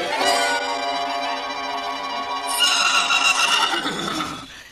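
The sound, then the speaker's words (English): Six white horses in golden harness, with red and blue ribbons in their manes, harnessed in front of a carriage, neigh loudly: a long, shrill whinny that wavers and falls in pitch, overlapped midway by a second bright whinny, with no voices. “Six white horses with golden harness and red and blue ribbons in their manes.”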